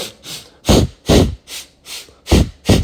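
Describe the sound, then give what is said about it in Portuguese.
Quick, forceful hyperventilation breaths done as a pranayama breathing exercise, in a steady rhythm, about seven or eight short puffs in three seconds, alternating louder and softer bursts of air with no talking. “Então, se você vai fazendo a contagem do pranayama e vai fazendo a respiração e você fizer um pouco de hiperventilação, que é não só inspirar três vezes, soltar três vezes, mas fazer uma coisa mais curta”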